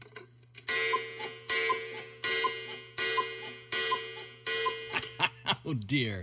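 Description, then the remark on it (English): A cuckoo clock sounds off in a steady series of about six loud, evenly spaced calls over a low hum, followed by a person laughing and speaking briefly at the end. “that's the sound of the cuckoo clock, which means we're uh, at the end of today's podcast.”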